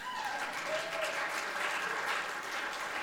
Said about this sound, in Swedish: Får jag en applåd för det där?